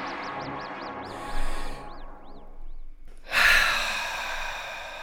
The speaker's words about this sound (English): I should, you know, breathe deeper in and out.